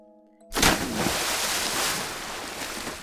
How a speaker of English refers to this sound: As Robert walked away, he heard the sound of a splash as Kate heaved the rest of Julia Thomas into the River Thames.